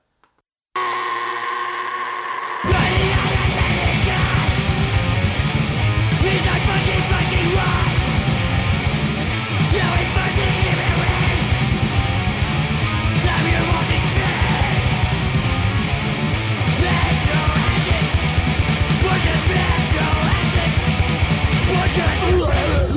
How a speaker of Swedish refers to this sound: jävligt mycket råpunk över det också. Man gillar också att de inte har lagt ner onödig tid i studion.